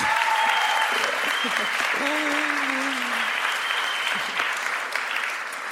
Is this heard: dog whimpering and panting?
no